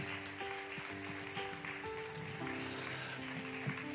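An audience gives a steady round of applause, a dense wash of clapping that holds at an even level for several seconds while sustained keyboard chords play underneath.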